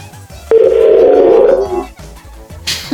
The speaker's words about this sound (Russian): Гудки становятся все истерички.